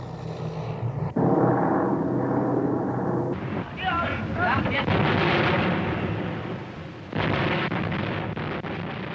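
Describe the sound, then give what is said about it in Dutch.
Explosions from a British bombing raid on the Ruhr region of Germany, including Oberhausen, from 1943, striking armament industries and densely populated cities, roar in a dense, continuous rumble, with sudden heavy new blasts bursting in at intervals, loud throughout. “Seit Frühjahr 1943 fliegen sie Angriff auf Angriff gegen die Rüstungsindustrien gegen die dicht besiedelten Städte.”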